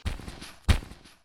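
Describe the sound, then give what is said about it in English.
Two muffled thumps about half a second apart, each followed by a brief crackly rustle, as a small bird named Sampa, blown by the wind, bangs into the big leaves of a tree, with no voices. “And that is the sound of Sampa banging into them.”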